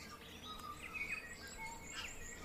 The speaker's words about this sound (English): behind me right now is the dawn chorus to which I have become accustomed to waking up to every morning. The bird in the foreground is called a tui, and it's one of the most beautiful bird songs I've ever heard throughout my travels around the world.